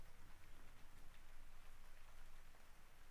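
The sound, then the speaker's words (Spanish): Steady rain falls throughout, a dense, even hiss of drops with a soft low rumble underneath, continuous with no voices. “Y nos acompaña la lluvia.”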